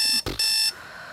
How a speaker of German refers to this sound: Zum Beispiel, wenn du dir früh um 6 Uhr den Wecker gestellt hast.